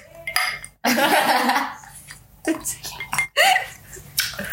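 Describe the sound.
Glasses of Sprite clink together in a bright toast, a few sharp chimes ringing out amid excited voices and laughter.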